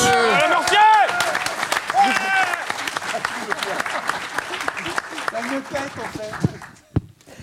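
An audience at the Club de l'Étoile breaks into loud, sustained applause for the technical crew, with dense clapping and a few whoops and cheers over it, gradually thinning out and fading to a few last claps at the end.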